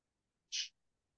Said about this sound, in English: I'd like to say I'm sorry for the birds in the background.